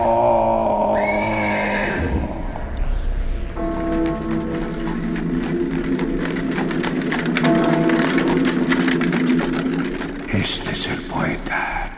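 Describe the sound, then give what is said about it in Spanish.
Horses already harnessed to a carriage neigh and whinny in several long, wavering calls, with a steady patter like rain or restlessly pawing hooves underneath. The sounds are loud and continuous throughout. “los caballos piafan ya enganchados y la carrota guarda.”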